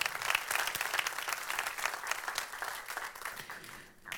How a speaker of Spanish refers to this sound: Le damos un fuerte aplauso a las personas que están hoy por primera vez.